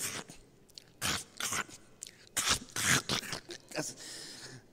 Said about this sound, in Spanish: Nunca has estado en el cine y el que está al lado come palomitas haciendo ruido.